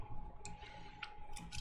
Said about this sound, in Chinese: 好，那总结，我喝个水。